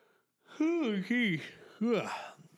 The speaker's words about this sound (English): Must be getting late. Who caused the other one to yawn there?